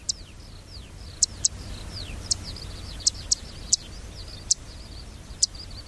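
A zitting cisticola in Nagareyama, Chiba Prefecture, Japan, repeats sharp, high-pitched zit notes at uneven intervals, clear, while fainter downslurred chirps and a low outdoor rumble fill the background.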